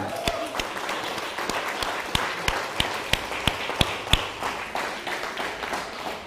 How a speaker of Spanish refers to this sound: Dale un fuerte aplauso.